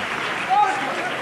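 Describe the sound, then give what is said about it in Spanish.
A large crowd applauds steadily after a saeta sung from a balcony on the Cuesta del Rosario, a dense wash of clapping with a brief high whistle rising above it midway through. “rompen aplausos a esta saeta que ha interpretado Alex Ortiz desde un balcón de la cuesta de Rosario”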